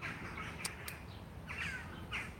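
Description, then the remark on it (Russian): Harsh crow-like caws sound repeatedly over a steady low background rumble, with a couple of sharp clicks early on and no voices. “Да, птицы”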